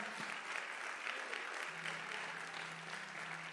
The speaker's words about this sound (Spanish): Vamos a darle un aplauso fuerte al Señor si lo entiendes.